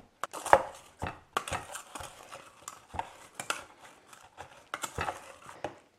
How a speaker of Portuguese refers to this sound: Agora que a gente já deu uma amassadinha no nosso limão